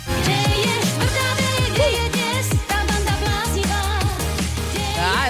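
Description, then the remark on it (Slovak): A re-recorded pop song, newly sung in a completely different style, plays loud and full, with a steady beat, bass and layered synths under a bright sung vocal line that calls out short words. “nahrala na novo túto pesničku a v úplne inom štýle znie takto.”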